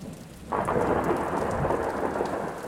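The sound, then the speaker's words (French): Steady heavy rain hisses, then a sudden loud thunderclap bursts in and rolls on as a sustained rumble beneath the downpour. No voices are present. “Tout à coup, un puissant éclair illumine sa chambre.”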